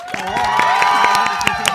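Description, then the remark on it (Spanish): An audience applauds a guest being welcomed onto the show, for a couple of seconds, sharp claps landing in a quick, fairly steady rhythm over a loud wash of cheering voices. “vamos a aplaudirla primero.”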